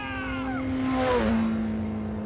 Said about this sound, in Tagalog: Bigla na lang talaga akong tinayuan ng mga balahibo pagkatapos ay dali-dali kong inistart ang motorsiklo ko bago ko yun pinaharurot papunta sa bayan.